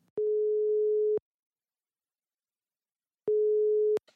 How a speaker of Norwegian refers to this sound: Men nå ringer vi.